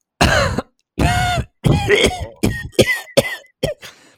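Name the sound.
demonstrative cough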